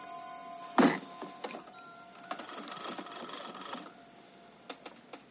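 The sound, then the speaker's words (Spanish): Someone picks up a telephone and dials a number: a sharp clack, then mechanical clicks and a steady whirring rattle of the dial, followed by a few faint separate ticks at the end. “Luego coge el teléfono y marca un número.”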